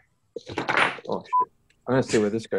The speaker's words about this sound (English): That was my phone.